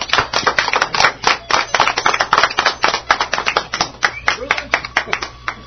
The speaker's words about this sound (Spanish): Un aplauso, muchachos, para Pablo Loni Rey.